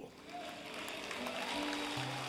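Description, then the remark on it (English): Faint, scattered audience applause patters steadily for a couple of seconds, with soft sustained keyboard notes humming underneath. “If you're gonna applaud, make it loud.”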